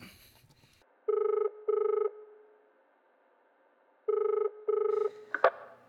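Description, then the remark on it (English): A telephone rings on a recorded call to a Brexit headquarters in England: two double-pulse rings with a pause between them, sounding slightly tinny as if heard down a phone line, followed by a brief click like the receiver being picked up. “it's a phone call, so let's just see I, what we I, have I, here.”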